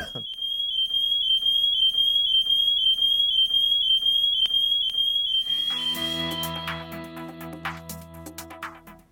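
A loud, shrill smoke alarm tone pulses rapidly and steadily for about six seconds, then gives way to a swelling musical backdrop with chimes and low tones.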